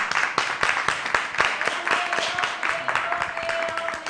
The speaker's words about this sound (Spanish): Le damos un aplauso a la ...le damos un aplauso, venga.